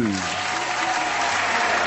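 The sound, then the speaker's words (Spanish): Steady audience applause, a dense continuous wash of many hands clapping at constant loudness, with a brief low voice at the very start. “Sí, viste, ¿dónde estaba el aplauso para el amigo?”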